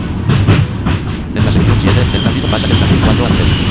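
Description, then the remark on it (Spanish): A cart in a game rolls along rail tracks, switching from rail 2 to rail 3 in section 5, with a loud, steady rumble, punctuated early on by a quick run of rhythmic clacks before settling into a continuous grinding roll. “En la sección 5, el carrito pasa del carril 3. del 2 al 3.”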